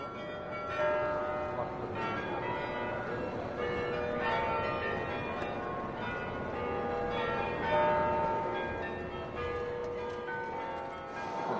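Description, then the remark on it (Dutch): Church bells peal continuously across the city of Groningen, overlapping tones ringing out steadily with a dense, resonant wash of chimes that carries through the whole scene. “is wel een mooie soundmark om de wandeling nu eh, af te sluiten.”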